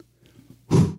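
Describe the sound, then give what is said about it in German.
After a brief quiet stretch, a single loud, sudden sneeze bursts out, sharp and breathy, then fades quickly. “Gesundheit.”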